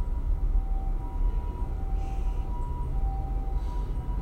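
A faint, distant ambulance siren wails steadily beneath a heavy low rumble, like rain or a car interior, with no one speaking.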